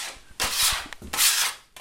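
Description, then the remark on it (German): A long-handled scraper drags across a henhouse floor, scraping off trampled hen manure in two broad, rasping strokes, loud gritty scraping with a short pause between them and faint knocks underneath; no one speaks. “Damit kratzt er den festgetretenen Hühnermist vom Stallboden.”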